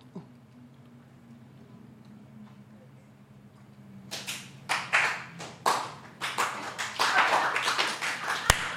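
Quiet hum for several seconds, then an audience, each person silently counting up to twelve after a spoken count of four, starts clapping together: loose, uneven claps that build into a fuller burst of applause, with one sharp loud snap near the end.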